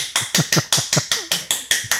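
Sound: hand clapping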